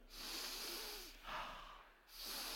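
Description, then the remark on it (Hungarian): An audience takes strong, hissing breaths in through their noses, three long forceful inhalations one right after another, loud with no talking. “Lehet három ilyen levegőt mindenkitől kérni? Három jó erős levegő.”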